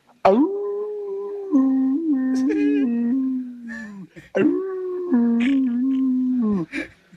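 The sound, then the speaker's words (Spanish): A person imitates a coyote howl twice: two long, loud, wavering vocal howls, each lasting several seconds, the pitch climbing at the start and then holding before trailing off. “quiero que me hagas el amor como coyote, mi amor.”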